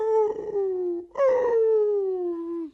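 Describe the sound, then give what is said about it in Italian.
A wolf howls twice in a long, mournful wail, the first cry briefly breaking off before a second that slowly slides downward in pitch. Loud, with no voices. “Al suo brutto carattere pensava e mentre rifletteva, così si disperava.”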